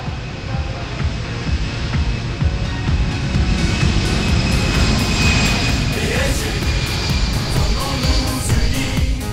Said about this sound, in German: Flugzeug fliegt durch den Himmel von Spanien.